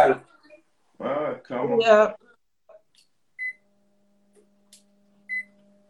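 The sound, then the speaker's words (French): A voice talks briefly, then an air conditioner being switched on gives two short, clean electronic beeps about two seconds apart, followed by a faint low hum as the unit starts running. “Non, je t'écoute, hein, j'allumais la clim.”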